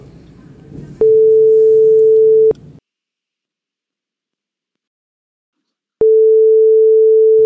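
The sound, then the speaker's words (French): A phone's outgoing ringing tone: a steady, mid-pitched beep sounds for about a second and a half, falls silent for several seconds, then starts again, with faint background murmur under the first ring. “Je vais l'appeler pour voir.”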